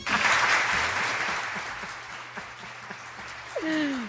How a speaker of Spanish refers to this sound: El aplauso.